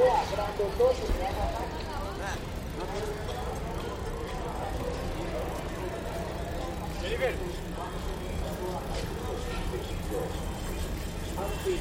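Busy street ambience in the city centre of Bogotá, heard from a moving bicycle: a steady low rumble of traffic and engines, with chatter from people drifting in and out over the continuous noise.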